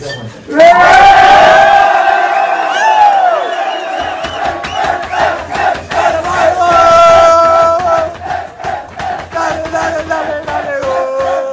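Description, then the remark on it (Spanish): A large stadium crowd chants loudly in unison, calling for a fifteenth title, sustained sung voices rising and falling in a steady rhythmic pattern with roaring cheers underneath, filling the space from start to finish. “Eso es lo que se alcanzó a escuchar. Bueno, pues ahí está, pidiendo ya la número 15 don Emilio.”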